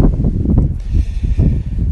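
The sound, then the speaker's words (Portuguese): Wind gusts on the veranda of a house, buffeting the microphone with a steady low rumble that swells and dips for the full two seconds, with no voices. “Tá um vento gostoso e eu tô pensando aqui como que deve estar tá frio por lá.”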